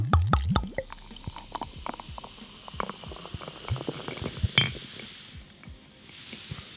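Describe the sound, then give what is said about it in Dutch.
A cheap El Tequito tequila-flavored beer from Lidl opens with a sharp crack and hiss, then fizzes steadily, with dense crackling bubbles and small pops continuing for several seconds. No one speaks. “Wauw, dit bruist.”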